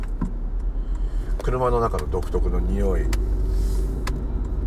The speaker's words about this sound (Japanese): 青い信号が出ていますが直進車がいるので右折を待っています待っています車の音が聞こえます